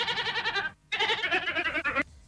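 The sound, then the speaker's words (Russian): A ram bleats twice in close succession, a loud, wavering, nasal cry with a short gap between calls, with no talking. “Баран, получается.”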